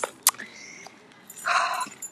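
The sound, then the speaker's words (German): Keys jangle: a few sharp metallic clinks with a brief ringing tone, then a longer rattling shake, and a final clink at the end. “Lass mal den Schlüssel, weil sonst ist so.”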